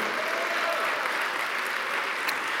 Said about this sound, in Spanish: Cada día, sí, dale un aplauso al Señor si quiere.